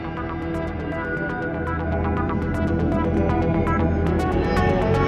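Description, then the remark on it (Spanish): A new news segment theme jingle plays on its own: sustained layered tones over a steady rhythm of crisp, evenly spaced percussive hits, staying loud and constant throughout with no voices. “vamos a escuchar nuestra música nueva de Noticias Paranormales”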